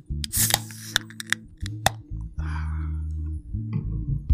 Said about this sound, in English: When y'all hear that can crack, that mean your man back.